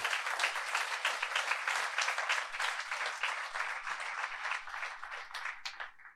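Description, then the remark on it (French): A large crowd applauds steadily for about six seconds to acclaim the Lord for a woman's healed kidney. A dense wash of many hands clapping at once holds its level before tapering off at the very end. “Je crois qu'on peut acclamer le Seigneur pour ça.”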